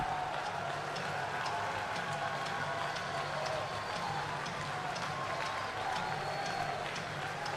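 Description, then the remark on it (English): A hometown baseball crowd rising to its feet cheers and claps steadily, cheering on Marshall as he goes for the win, with the Cougars' batter down to his final strike; a dense, even roar of voices and applause holding at a constant level for several seconds with no one speaking over it. “The hometown crowd rising to their feet and cheering on Marshall as he goes for the win.”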